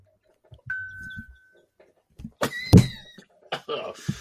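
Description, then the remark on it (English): A few short, dry coughs burst out, spaced irregularly over a couple of seconds, after a brief stretch of low murmuring. “I started coughing. It was dry.”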